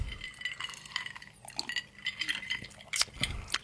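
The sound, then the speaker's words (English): Glasses clink together several times in a toast, bright ringing taps scattered over a few seconds, with soft handling and rustling underneath and no talking. “luckily this bottle is only like a sixth left. So yeah, we can yeah. do this. Yeah, Justin's like, wow, that's a cheap date. cheers.”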